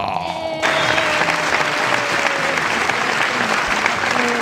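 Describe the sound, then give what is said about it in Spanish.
A loud, sustained burst of audience applause starts abruptly after a brief moment and continues steadily, dense clapping from a large crowd at a forum, given as a guest, Alma Camacho, is welcomed. “Entonces, eh, gente de aquí del foro, les pido con, este, con todo el entusiasmo que por favor le den un fuerte aplauso a la dueña de mi corazoncito.”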